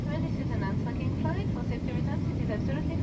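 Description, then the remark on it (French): A steady, loud airplane cabin engine drone fills the whole recording, a constant low roar that never lets up, with a voice speaking over it. “J'ai tout de même tiré ma valise, montré mon passeport, acheté une petite bouteille de vol de nuit au Duty Free Shop avant d'être englouti dans les boyaux de l'aéroport jusqu'à cet avion d'où je t'écris.”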